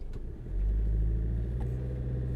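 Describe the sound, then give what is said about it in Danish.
A car engine idles with a heavy, uneven low rumble that swells after a moment and keeps droning, sounding rough and strained rather than smooth. “Har bare en mavefornemmelse af, at det ikke lyder særlig sundt.”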